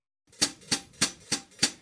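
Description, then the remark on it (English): Five crisp, evenly spaced hi-hat chicks from a foot pedal pressed with the left foot, pulsing steadily at a moderate tempo, fairly quiet with bright, sizzly tops and nothing else playing. “he illustrated the crucial role that … left foot played in each of his drum parts with many of his grooves, … for sure, and often during the …, … would be pulsing his left foot.”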